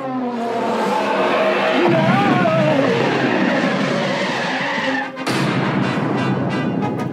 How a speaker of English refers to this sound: when they do the flying catch that when Luke slams on the brakes with his ship, they literally play car brakes sound mixed in with the space stuff, which just is like a cherry on top of this little Star Wars LP Sunday that you're listening to.